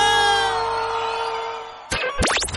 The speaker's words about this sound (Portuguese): Quem gostou faz muito barulho.